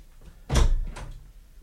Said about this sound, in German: Die Tür da? Ja, diese Tür.